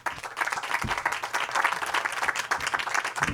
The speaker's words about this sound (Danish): Giv dem en stor hånd.